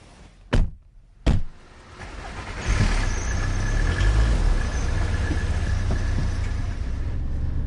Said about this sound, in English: we're on the A505 near Duxford, and uh, Dave's driving his car